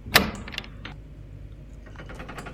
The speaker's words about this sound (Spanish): Cuando lo hace suena como un clic.